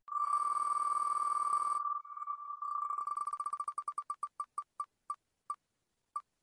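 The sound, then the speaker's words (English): A spinning picker wheel sound effect used to choose which book to read: a steady electronic tone gives way to rapid ticking beeps that gradually slow down, spacing out until a final click as the wheel stops. No voices. “so we're gonna wheel of fate it.”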